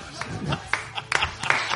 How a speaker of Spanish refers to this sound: Un aplauso.